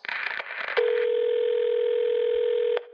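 A telephone call to the Prime Minister of the Czech Republic, Andrej Babiš, rings on the line: after a short burst of crackly noise, one steady, low-pitched electronic ring tone holds for about two seconds and cuts off with a click. No voices.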